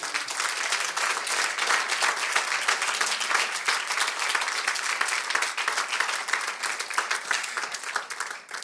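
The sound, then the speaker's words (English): A crowd of people clap their hands together in praise of God in sustained, dense applause, a steady loud wash of overlapping claps that holds for several seconds before easing slightly at the end. “Oh, give him a hand clap of praise.”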